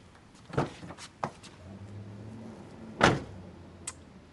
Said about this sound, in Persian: الان اومدی در ماشین رو درست کنی امتحان کنی بفرمایید